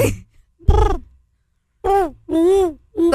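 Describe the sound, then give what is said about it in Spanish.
A human voice imitates owl hoots: four breathy, tonal hoo calls, one alone and then three in quick succession, fairly loud, with short silences between. “Son búhos, ah, es, es un ave también.”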